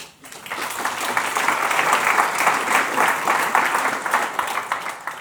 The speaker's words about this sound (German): Und dieser Applaus gilt dann auch gleichzeitig an die Mitglieder dieses Redaktionsteams, dass sie diese Aufgabe übernehmen.